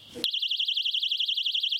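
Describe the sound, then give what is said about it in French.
A personal alarm device, carried by restaurant staff in Nantes, France, against assaults, blares a shrill, piercing electronic tone warbling rapidly and continuously after a brief muffled rustle at the start. “Alarme, les petites bombes tolérées de gel de poivre pour déstabiliser en fait l'agresseur et partir.”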